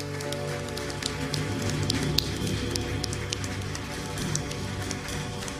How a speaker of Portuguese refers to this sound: Você pode aplaudir ao Rei da Glória? Ah, pode ser melhor, vamos juntos.